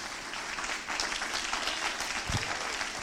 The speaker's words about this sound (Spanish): Si usted lo cree, denle un aplauso fuerte al Señor Jesús.